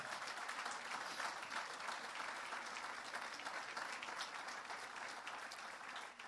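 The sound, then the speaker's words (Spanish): An audience claps steadily in praise to the Lord, a dense, even wash of many hands applauding at constant loudness for several seconds, with no voices standing out. “De un aplauso de alabanza al Señor.”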